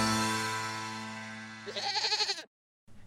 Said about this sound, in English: Hey, look, what's that? It's a five legged goat.